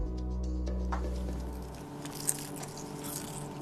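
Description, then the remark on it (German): Crunching and chewing of crispy fried jellyfish, with a sharp bite and wet squishy mastication over a low steady hum, no voices. “Ein einfacher Weg, den Markt zu vergrößern, frittieren. Macht die Qualle nicht gesünder, aber extra knusprig.”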